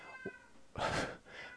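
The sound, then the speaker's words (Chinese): A cat yowls wildly: a short low cry, then a long, loud, strained wail that trails into a fainter follow-up, with no talking. “有一只猫疯狂的在鬼叫。”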